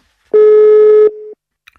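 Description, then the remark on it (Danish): A single steady telephone ringing tone as a call is placed from Fredensborg Library to author Hanne Vibeke Holst, a loud electronic hum lasting under a second that drops to a softer level before cutting off, followed by a faint brief click. “så jeg synes, det er nærliggende at ringe til Hanne Vibeke Holst og høre, hvad hun tænker, at litteraturen kan gøre for os i en krisesituation som denne her.”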